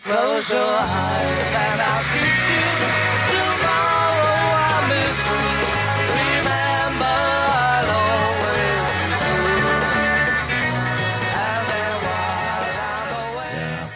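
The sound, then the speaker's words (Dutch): A live rock band plays loudly and steadily, with driving bass, full guitars and layered harmony vocals carrying the melody throughout. The sound stays dense and energetic without pause. “Want ze doen het live heel anders als, als op, de, op de LP.”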